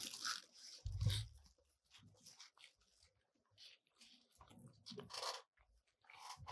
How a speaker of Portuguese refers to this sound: Hum, nossa. Com uma bola de ah. sorvete. Meu Deus do céu, muito bom, muito bom. Vale a pena, vale a pena. Deixa eu dar mais uma mordidinha hum. pra gente continuar. Uma delícia. Nossa, é muito bom, meu pai do céu.